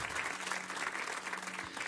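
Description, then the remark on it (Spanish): An audience applauds with dense, steady clapping that fills the whole stretch, a continuous bright patter of many hands with a faint low hum underneath. “mira, si es para Jesús, entonces dale un buen aplauso”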